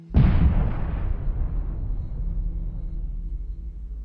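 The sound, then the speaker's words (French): A single heavy bomb explosion in Yemen, during the Saudi-led coalition's bombing campaign, bursts in sharply, then rolls into a long, deep rumbling decay that lingers for several seconds. No voices. “Le bruit des bombes”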